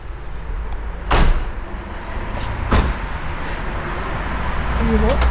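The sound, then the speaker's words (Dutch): A door being pushed shut, with two sharp thuds about a second and a half apart over a steady background rumble, followed by a brief voice near the end. “Als je deze erop legt, anders gaat de deur niet dicht.”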